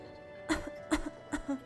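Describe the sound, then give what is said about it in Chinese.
Three short, harsh coughs from the story character Little Rabbit Brother in a smoke-filled room come in a steady rhythm, each followed by a brief rasping catch of breath. They are moderately loud over a faint background hum, with no talking. “小兔哥咳嗽着：“你家着火了吗？”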